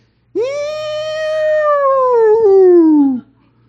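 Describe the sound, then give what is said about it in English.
A single voice holds a loud, steady wailing tone for about three seconds, sliding slightly downward at the end, mimicking the blare of a tornado siren. “She's like, that's a tornado alarm.”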